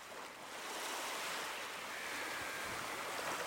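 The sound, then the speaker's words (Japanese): Ocean surf washing onto the shore in a steady, continuous rush of water, moderately loud, with no distinct breaks between waves and no voices. “海について私はその石を投げた”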